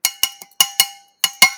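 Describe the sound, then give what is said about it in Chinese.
Seven bright, ringing clinks of something tapping a drinking glass to call for attention before an announcement and toast, each striking sharply and fading quickly, in a quick run of five and then two more after a short pause, with no talking. “敲一敲。”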